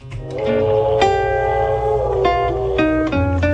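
An old blues recording plays loudly and steadily, with sustained instrumental notes changing every second or so. No singing or talking comes through during this stretch.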